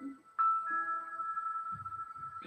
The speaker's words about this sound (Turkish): Müziğin sesini duyan var mı? Eğer yoksa onu biraz açayım.